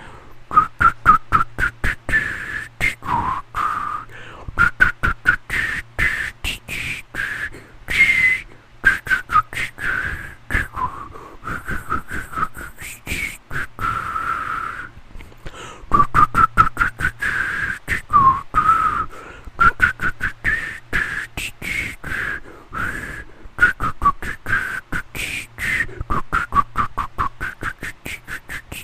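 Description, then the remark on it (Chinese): Breathy, airy human whistling imitating the sound of wind, more like rushing wind than a clear tune, wavering in pitch with choppy puffs of air, running steadily with a brief pause midway. “…说这不是口哨，这是风声。”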